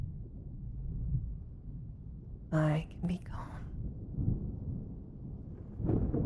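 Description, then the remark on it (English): A deep, continuous rumble of rolling thunder fills the background from start to finish, steady and fairly low, while a soft whispering voice speaks briefly over it. “Let my words flow through you as the thunder rolls in.”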